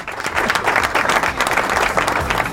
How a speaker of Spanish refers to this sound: Un aplauso para Agustín. Esto es superación, loco. Muy bien, Agustín.